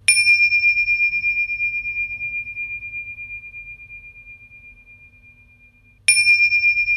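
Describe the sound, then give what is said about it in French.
Two strikes of a small Tibetan-style bell, a mini gong, each a clear, high, pure tone; the first rings out and fades slowly over about six seconds before the second bright strike sounds. “Et ça, ce sont des petites cloches, disons des petites cloches un peu tibétaines, des mini-gongs tout purs et pleins de sagesse.”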